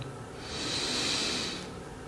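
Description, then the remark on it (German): A single slow, deep breath drawn in through the nose during a guided group meditation, swelling to a soft airy hiss and fading out over about two seconds, without any talking. “Wir nehmen alle zusammen einen tiefen Atemzug und atmen ein.”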